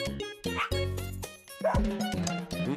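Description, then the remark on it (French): A small dog yaps in a quick series of sharp, high barks, fairly loud, with a busy, tonal backdrop filling the short clip, in a trailer for a photography video game on Nintendo Switch. “Tu te un petit chien, plat, plat, plat, prends des photos.”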